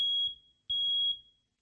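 A smoke alarm gives two loud, piercing high-pitched beeps, each lasting about half a second with a short gap between, with no voices.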